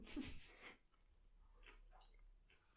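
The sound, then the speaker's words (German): Chewing of a vegan fish substitute that smells of fish: a loud, crunchy bite at the start, followed by quieter, intermittent moist chewing sounds, with no talking. “Hörst du nicht das Essen?”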